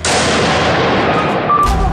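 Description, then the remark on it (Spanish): Gunshots in amateur video footage of the Charlie Hebdo attack, as hooded gunmen shoot a wounded police officer lying on the ground; loud and harsh, blending into a continuous burst of crackling noise with no clear pauses, and no voices heard. “Un aficionado graba como dos de los tres encapuchados rematan a un policía herido en el suelo.”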